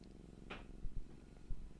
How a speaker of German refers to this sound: Mein Kater ist hier will mit mir kuscheln.